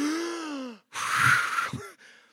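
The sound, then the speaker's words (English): A sharp, breathy gasp as a voice draws in air suddenly, a harsh rushing inhale lasting under a second, preceded by a falling vocal tone and followed by a softer breathy trail; imitating a person breathing in when someone prays "Come, Holy Spirit". “So when you say, Come, Holy Spirit, and the person goes,”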